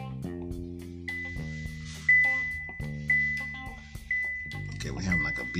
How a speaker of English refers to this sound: Was is that one of the alarms going off or I don't know. Let's see here. Oh, I know what it is. There it is. oh, everything is beeping. I'm not a big fan of these cars.